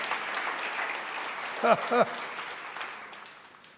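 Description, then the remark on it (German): An audience at a German-language church service applauds for God in a dense, steady wash of clapping. Two brief voiced whoops rise above it midway before the clapping gradually fades. “Ja, lass uns ihm einen Applaus geben, weil er allein gehört und gebührt alle Ehre.”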